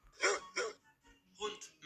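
A dog gives three short, sharp barks, two in quick succession and one after a brief pause, fairly loud against an otherwise quiet background.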